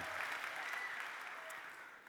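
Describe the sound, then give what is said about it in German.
An audience claps steadily in a dense, sustained wash of applause that holds fairly even for two seconds before tapering slightly at the end. “Okay, großer Applaus”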